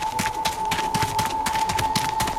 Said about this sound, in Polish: dźwięki ścian mogą pomóc się zorientować w przestrzeni. Inne dźwięki są odgrywane, gdy ściana jest za tobą, przed tobą, po twojej lewej lub po twojej prawej.